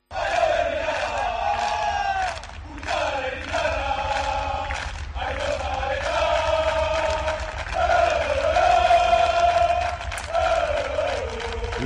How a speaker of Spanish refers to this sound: Hoy la afición se ha presentado en Zubieta para animar así, escuchen, a su equipo.